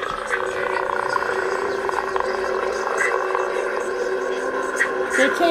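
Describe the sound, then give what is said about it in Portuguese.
A moody instrumental music track with layered, sustained tones and a dense ambient texture, playing steadily at moderate volume without pauses, used as background music in games of Call of Cthulhu and Dungeons and Dragons. “Eu tenho até aqui, vou, vou mostrar uma palhinha para vocês de, um, de uma música que eu gosto muito de botar, até em jogos de, de, de Call of Cthulhu, de, de Dungeons and Dragons, digo.”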